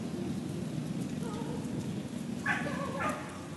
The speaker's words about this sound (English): You hear a uh, dog barking at an opera in the park. It is not even. It's, it is not yet 11 a.m. and they're is opera in the park.